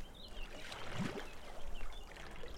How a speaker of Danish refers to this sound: Det er dejligt at sidde og slappe af til lyden af det rolige vand